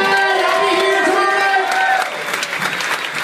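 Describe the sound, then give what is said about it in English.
An audience bursts into loud, sustained applause for Graham Elwood, with whoops and cheers layered on top, a dense wash of clapping that stays steady throughout, dipping only slightly in the final second. “Let's hear it for Graham Elwood, everybody.”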